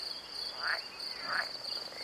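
Frogs and birds call outdoors over a constant high-pitched insect drone, with two brief chirping calls standing out a little over half a second apart. No one speaks.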